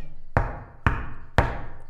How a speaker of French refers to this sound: Zut, la porte est fermée à clé. Alors elle frappe.